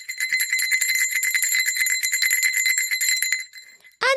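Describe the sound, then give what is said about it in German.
A school bell rings rapidly and continuously for about three and a half seconds to end a lesson, bright, then falls silent before one last sharp ring. No voices. “Und magst du noch mal läuten zum Abschluss unserer Schulstunde?”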